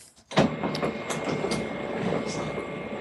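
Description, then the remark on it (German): A loud printer starts up abruptly and keeps whirring steadily, a dense mechanical rumble with faint clicking and rattling throughout, with no voices. “Genau, das hört sich nach einem wirklich ähm, sehr äh, lauten äh, Drucker an.”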